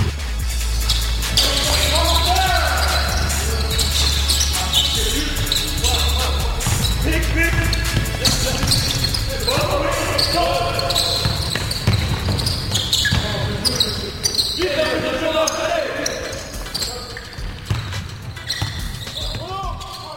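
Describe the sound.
Basketballs bounce repeatedly on a hard court during a basketball practice, in an irregular, overlapping rhythm, with echoing thumps and background voices and movement throughout.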